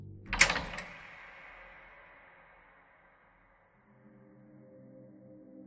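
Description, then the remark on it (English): A door is locked with a sharp metallic clunk and a quick second click, the sound ringing out and fading into near silence before a low, soft hum rises. “But first, lock the door.”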